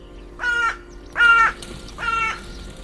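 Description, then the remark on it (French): A crow (Corvus corone) caws three times in a slow, even rhythm, each call harsh and raspy, clear against a quiet outdoor background with no talking. “Et le nom scientifique de la corneille, pour ça, c'est Corvus coroné.”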